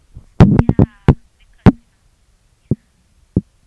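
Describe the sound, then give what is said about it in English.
Loud bumps of an object knocking against a phone: a quick cluster of rattling thumps at first, then a few isolated knocks spaced out, with no talking. “The shit keeps banging into a phone. There's gonna be like bumping sounds into it.”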